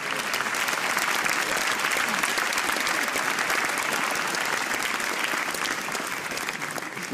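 Sustained audience applause, dense and steady clapping from many hands at a fairly loud, even level for several seconds, with no clear speech over it.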